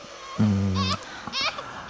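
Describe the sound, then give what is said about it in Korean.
A baby cries in two loud, quavering wails as its mother leaves for work, the first long and strained, the second shorter after a brief pause. “아유 우리 애기 엄마 출근한다고 울었죠 울지마 울지마 울지마 울지마 울지마”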